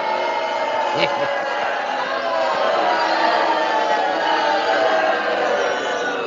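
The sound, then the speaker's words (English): A crowd boos loudly and steadily for several seconds, a dense wall of low, drawn-out jeering voices that never lets up, with no single speaker standing out. “All of you, everybody gets booed.”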